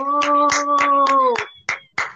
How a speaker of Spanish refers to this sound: Un aplausito, gente. Esas palmas que se noten bien calentitas ahí.